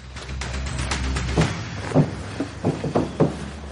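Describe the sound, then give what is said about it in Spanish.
A car trunk is opened and shut as a man climbs inside it to hide, giving a few solid clunks and rattles spaced about half a second apart over a steady low rumble. No one speaks. “Se acerca a un coche y se esconde metiéndose dentro del maletero.”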